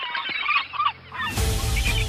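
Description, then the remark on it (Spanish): Seagulls call in a quick series of harsh, nasal squawks at a beach bar terrace in Asturias. Midway through, a steady broad rushing noise rises up, with more gull cries over it. “Las gaviotas campan a sus anchas y molestan, roban, defecan, picotean y vuelan en rasante sobre turistas, mesas y sillas, coches, toallas y calvas de señores prejubilados.”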